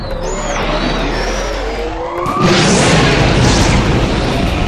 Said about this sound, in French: les moteurs du cargo s'allumèrent, des flammes immenses, une lumière intense projetée derrière l'engin.